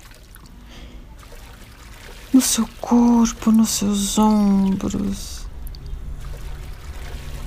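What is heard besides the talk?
water pouring down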